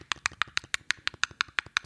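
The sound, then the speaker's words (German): A voice imitates the clicking of creatures in a zombie video game: about a dozen sharp, crisp clicks in a fast, steady rhythm, fairly loud and alone with no talking. “Die machen so Klickgeräusche.”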